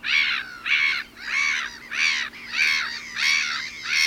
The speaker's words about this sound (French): La mouette rieuse, elle a la tête noire et on peut la trouver ailleurs qu'au bord de la mer. Alors, ça, c'est leur cri.